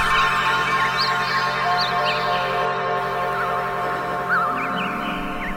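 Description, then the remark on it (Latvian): A dense chorus of thousands of small birds in a garden chirping and twittering at once, a steady busy flutter of overlapping tweets with no pauses, moderately loud. “Te laiciņu pēc saulītes dārsts uzreiz noklimst, it kā tūkstošiem un atkal tūkstošiem putniņu tur iedzīvotāji.”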